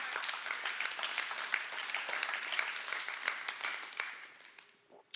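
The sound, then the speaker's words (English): A crowd applauds steadily, dense overlapping claps at a fairly loud level, then thinning and fading out near the end with a few last scattered claps. “You're just clapping now?”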